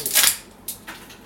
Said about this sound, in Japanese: ちょっとカチャカチャうるさくてごめんなさい